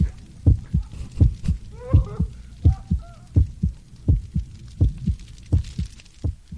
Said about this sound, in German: Achtung, ich spiele es ab. Ich höre ein Scharren, einen, eine Art Herzschlag, jetzt ein komisches, fieses Lachen.